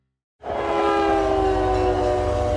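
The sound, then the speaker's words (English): After a brief silence, a freight train's horn blares loud and steady over a deep, continuous rumble of rolling rail cars in a train yard, holding without a break to the end. “When my daughter ran off to hop trains, I was terrified I'd never see her again, so I followed her into the train yard.”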